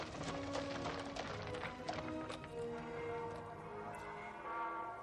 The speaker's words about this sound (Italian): Tuttavia, perplesso, fece attaccare carrozza e cavalli e andò dal prete nella cattedrale.